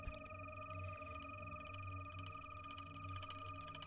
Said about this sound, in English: a musical exploration of a cricket whose song was recorded in the stillness of a Mexican desert region called the Zone of Silence.